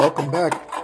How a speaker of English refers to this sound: Ooh. Well, that sounded rough. Welcome back. Clear my damn throat.